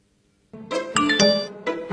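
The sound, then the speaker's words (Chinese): A text message notification chime: a quick melodic run of four or five bright, ringing electronic tones, moderately loud, with a short final note after a brief pause and no voices. “谁的短信啊？”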